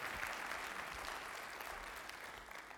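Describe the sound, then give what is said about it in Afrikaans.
An audience applauds a man being thanked for their annual golf day, a dense wash of many hands applauding at an even, sustained level for a few seconds with no voices standing out. “Kom skief hom net 'n lekker hande klap.”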